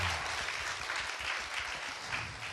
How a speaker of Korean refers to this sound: 여러분 큰 박수 부탁드리겠습니다.